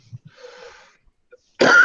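A wheezy, raspy intake of breath followed by a sudden loud, harsh cough from a sick smoker, with a couple of soft thumps at the start and no talking.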